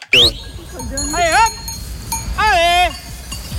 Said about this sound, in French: dirige ses chiens pour ramener des moutons